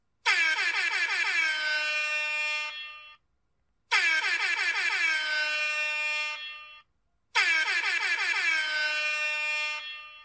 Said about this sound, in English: You are now sworn in members of the Neighborhood Watch. Let's sound those air horns to make it official.